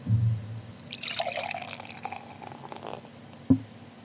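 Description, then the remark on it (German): Beer is poured into a glass: a gurgling splash that shifts in pitch, then a softer fizzing trickle, ending with a single sharp knock. No one speaks. “Hört man als Brauerin schon, wenn man, wenn man einschenkt, ähm, ob das ein, ein besonders gutes oder ein besonders schlechtes Bier ist?”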